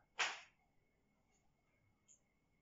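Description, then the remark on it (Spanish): A single sharp door bang from another room of a house, short with a quick decay, followed by near silence and one faint tick a couple of seconds later. “Fue un sonido, parece alguien despierto, me asusté. Perdón. Así, ah, escuché la puerta”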